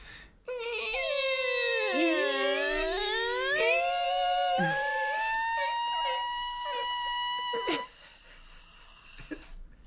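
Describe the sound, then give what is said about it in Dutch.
A heavy vault door creaks open in one long, loud groaning whine that dips low, then climbs to a high, steady squeal before cutting off abruptly. No voices. “Helpen jullie mij even om de deur te openen?”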